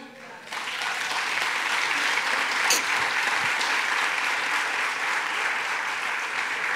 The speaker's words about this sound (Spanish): Amén. ¿Le da un aplauso, Señor?